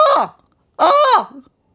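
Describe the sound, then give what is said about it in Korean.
A person imitates a crow's caw with two loud, harsh vocal squawks, a short one followed by a longer, strained one, with no other sound around them. “야, 나 까마귀 한 마리 온 줄 알았네.”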